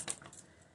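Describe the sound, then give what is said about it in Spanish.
A pet dog shakes its head in one quick flurry, ears flapping with a soft rattly jingle, fairly quiet and fading out within a second. “Ese fue mi perro.”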